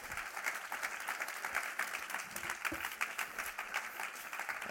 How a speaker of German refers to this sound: Und merci vielmals, dass du da bist. Geben wir Ihnen einen herzlichen Applaus.